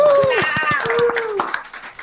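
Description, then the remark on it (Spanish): A small group claps in a quick, steady rhythm for about two seconds while voices whoop and cheer over the applause with rising and falling tones. “Podemos hacer un aplauso así, se nota que estamos ¡Uh!”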